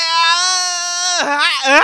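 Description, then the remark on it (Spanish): A woman lets out a loud, drawn-out sexual moan on an "eee" vowel, holding a steady high pitch before it dips and wavers into shaky, sobbing breaks. “sorry, se me olvidó decirte que iba a intentar gritar con otra vocal.”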